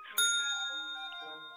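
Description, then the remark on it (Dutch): A single sharp strike of a service bell on a shop counter, its bright metallic ding ringing out and slowly decaying with shimmering overtones, clear with nothing else around it. “Gelukkig stond er op de toonbank wel een belletje.”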